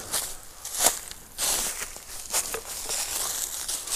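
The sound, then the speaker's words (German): Footsteps crunch through dry fallen leaves in a steady, unhurried rhythm, each step a crisp crackle and rustle, with no voices present. “Trockenes Laub.”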